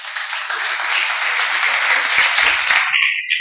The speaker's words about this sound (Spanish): Un aplauso para mi esposa, por favor.